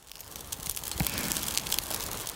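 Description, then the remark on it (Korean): Dense, irregular crackling and popping of garaetteok rice cakes roasting at a jjimjilbang (Korean sauna), with bright snapping bursts and a steady hiss underneath, no voices. “음, 내가 좋아하는 ASMR 느낌. 수치 지금 타닥타닥 타고 있어요, 여러분.”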